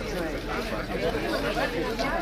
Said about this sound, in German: da geraten wir dann in den Trubel des Mercato Centrale, des zentralen Marktes der Stadt